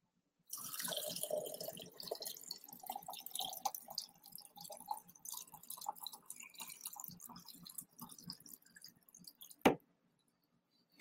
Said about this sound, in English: All right, hold on, guys. Got to refill my water here.